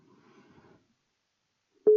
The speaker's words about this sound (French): Je compose. Mehdi, si tu es là, on va le savoir. Alors attention, quel suspense. Quel suspense impossible. Première sonnerie chez Mehdi. Deuxième sonnerie chez Mehdi.